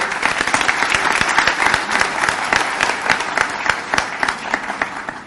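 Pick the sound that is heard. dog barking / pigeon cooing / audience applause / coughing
audience applause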